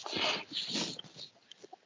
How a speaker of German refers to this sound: Ich muss mal kurz nach dem Hund gucken, da ist irgendwas los.